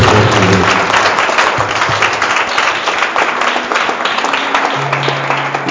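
A crowd claps steadily for the whole stretch, a dense, loud wash of many hands with no pauses, and a few faint voices or tones poking through underneath.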